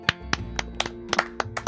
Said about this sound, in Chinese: 掌声，掌声给